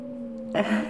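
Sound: wind howling outside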